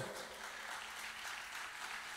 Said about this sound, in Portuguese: Pode aplaudir o Senhor.